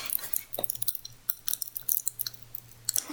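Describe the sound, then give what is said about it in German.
Someone chews food, a steady run of small wet clicks and crunchy smacks repeating for several seconds, fairly quiet, with no talking. “also du kannst nicht reden, weil du gerade was isst, dann guckst du auch immer so in eine Ecke hoch ich, in den Himmel.”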